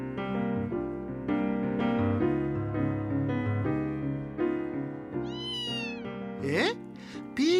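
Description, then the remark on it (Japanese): A cat meows several times, loud, in drawn-out wavering cries that follow a stretch of steady, sustained tones. “ガムを噛みたくなったってああ分かったよじゃあ帰りに猫用の歯磨きガムを買ってやるよ”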